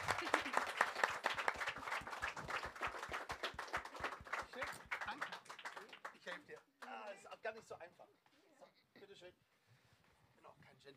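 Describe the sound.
An audience bursts into loud, dense applause that gradually thins into scattered claps and fades out, with faint voices murmuring underneath as it dies down.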